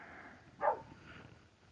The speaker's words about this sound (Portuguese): Para de latir, cachorro.